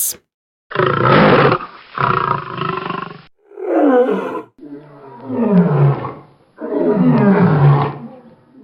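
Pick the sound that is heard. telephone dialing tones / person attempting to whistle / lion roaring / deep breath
lion roaring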